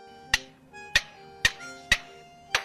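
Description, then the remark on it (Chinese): An Australian lyrebird mimics hammering nails: five sharp, bright knocks spaced roughly half a second apart, each with a short ringing tail, over a faint steady background tone. “你听，就是青鸟钉钉子，”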